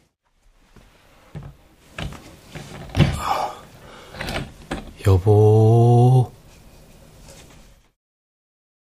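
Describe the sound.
A room door is carefully eased open slowly: soft clicks and handling noises, then a steady, drawn-out creaking groan lasting about a second. The door opens straight onto the main room of a house. A voice speaks briefly.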